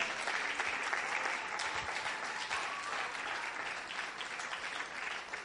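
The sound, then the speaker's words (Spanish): An audience applauds for God, the Eternal King, during a Bible reading, a steady, dense, even wash of many hands clapping that holds at a constant level for several seconds with no voices over it. “Quiere darle un aplauso al Rey Eterno por esto?”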